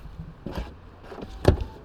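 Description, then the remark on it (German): A short motorized whir as the pressed flush door handle of a Tesla electric car slides out, followed by a sharp mechanical clunk as the car activates, with no talking over it. “Die Türgriffe sind hier im Auto eingelassen und ich drücke jetzt mal hier drauf.”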